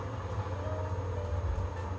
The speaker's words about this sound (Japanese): だけど台所なんで換気扇をちょっと回さないと今火かけてるんでね回しますね。だからホワイトノイズすごいかもしれません